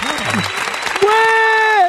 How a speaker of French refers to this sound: Applaudissements.